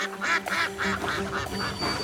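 Ducks at a pond quack in a rapid, overlapping series of nasal calls, about eight in two seconds, loud with no pauses between them.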